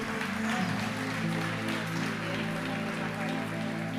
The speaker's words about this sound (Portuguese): Quem crê, diga amém, amém e amém, Pode aplaudir o Senhor.